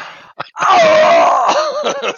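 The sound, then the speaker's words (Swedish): A voice imitates a scream: a short breathy lead-in, then a drawn-out, wavering wail that slides downward in pitch for nearly two seconds, loud, with no other sounds. “du hör ett skrik därifrån. Det är så”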